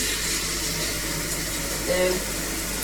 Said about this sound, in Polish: Dobra, no to teraz Trzeba tą wodę z tego wiaderka wylać z tym kwaskiem. I opłukać to wiaderko. Teraz nalewamy wodę do tego, żeby wypłukać tą całą yy,